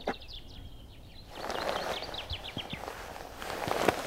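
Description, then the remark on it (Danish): Morning birdsong of quick, repeated high chirps and trills, sung by birds marking territory after the night, carries through the whole stretch, joined partway by crunching footsteps and rustling. “Og det, det foregår med sang her fra, her fra morgenstunden.”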